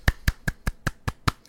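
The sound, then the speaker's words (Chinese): One person claps for themselves seven times in a quick, steady rhythm, each clap a sharp, bright smack with nothing else heard. “天哪，我要来先帮自己鼓鼓掌。”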